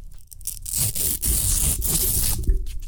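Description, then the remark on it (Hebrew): A strip of velcro is pulled apart in one long, continuous rip lasting about two seconds, a harsh crackling tear that starts with a couple of short tugs and stops abruptly. “איך אתה קורא לחפץ הזה? ולקרו.”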